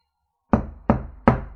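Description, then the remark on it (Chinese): Three firm knocks on an office door with a glass pane set in its middle, evenly spaced after a brief silence, each a sharp thud with a short ringing decay. No voices. “办公室门中间嵌着一块玻璃，敲出门的窈窕身影，看着门把在扭动。”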